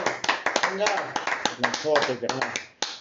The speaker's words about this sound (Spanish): Aplausote.